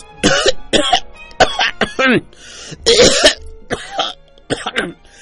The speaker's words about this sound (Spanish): ¿Salitre? me preguntó por fin. Salitre, le contesté. Hace mucho tiempo que tiene usted esa tos.